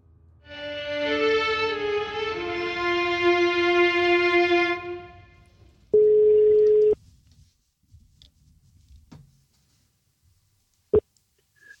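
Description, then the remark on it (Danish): A telephone line tone drones for several seconds during a phone call that reaches voicemail, then a single loud, flat one-second beep sounds, followed by faint clicks and near silence. No one speaks. “Du har ringet til Flemming Poulsen. Lidt venligst en besked efter tonen”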